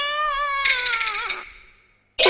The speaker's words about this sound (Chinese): 这芦苇之中，为何有婴儿啼哭之声？